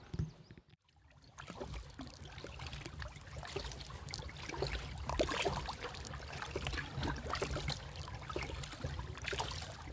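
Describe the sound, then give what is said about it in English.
Kayak paddle strokes splash and swish through river water on an evening trip upstream towards Godalming, past Unstead Woods, with a breeze and a few spots of rain, over steady trickling and lapping sounds and a low rumble underneath, continuing without speech. “It's um, it's yeah, lovely breeze in the air, and I'm gonna go off and uh, continue my kayak trip for another couple of miles.”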